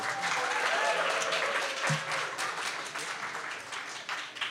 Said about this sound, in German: Ja, vielen Dank, Kinder. Das war richtig schön. Das habt ihr richtig gut gemacht. Es dürfen alle Erwachsenen mal richtig jubeln.